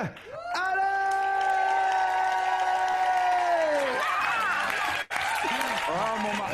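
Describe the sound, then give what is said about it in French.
A loud audience bursts into sustained applause and cheering to welcome a guest, with one long drawn-out shout held above the clapping before breaking into scattered whoops. “Alors, pour la portion partenaire, je vous demande d'accueillir sous un tonnerre d'applaudissements mon très très bon ami, quelqu'un que j'aime beaucoup,”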